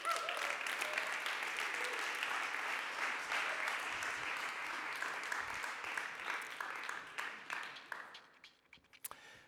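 A crowd applauds steadily, a dense wash of many hands clapping that holds strong for several seconds, then thins out into a few scattered claps as it dies away.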